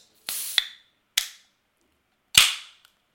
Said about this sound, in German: Ich greife jetzt zum Mezzomix so, Mezzomix ist eingeloggt. Wir machen hier den großen Öffnungsvergleich.